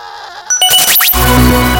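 A loud, wavering goat bleat cries out, followed by a dense burst of overlapping animal calls and bright jingling, like a small herd of goats kept for goat cheese bleating together.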